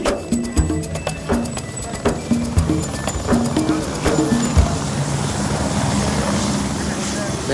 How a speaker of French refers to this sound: qu'est-ce qui se passe C'est un hélico. hélicoptère.